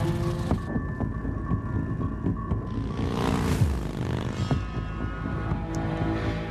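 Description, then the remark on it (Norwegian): A motorcycle engine throbs steadily as it heads up into the mountains, a low rumbling drone that swells briefly louder midway before settling back into a constant hum. No one speaks. “I disse bildene følger vi en motorsykkel og en Mercedes til fjells.”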